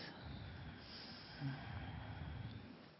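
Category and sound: human body sound, slow exhale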